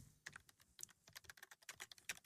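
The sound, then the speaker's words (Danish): Rapid, uneven clicking of computer keyboard keys, fairly quiet, with bursts of keystrokes and short pauses as someone steadily types an email, with no voices. “Som ansøgning til stillingen som ny indholdsdirektør.”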